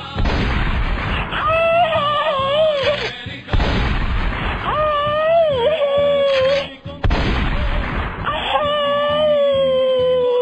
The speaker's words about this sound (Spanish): Porque fueron siete tiros.